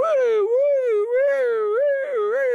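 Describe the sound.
A person imitates a dog's alarm howl meant to warn other dogs of fox droppings, a loud, sustained wavering wail sliding up and down in pitch for a few seconds, delivered alone without talking.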